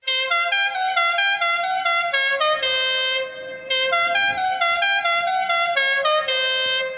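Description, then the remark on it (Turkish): Loud, continuous car horns blare in overlapping bursts, several honking at once with a brief dip near the middle before the honking surges again, from a wedding convoy driving through Zonguldak, Turkey. “Böyle geziyor babalar. Bütün bütün Zonguldak ayakta. E, ne o birisi birisi evleniyor ya arkadaş bunun bebeği var, hastası var, yaşlısı var.”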